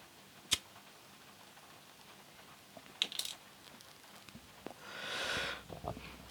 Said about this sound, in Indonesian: bentar gue nyalain rokok dulu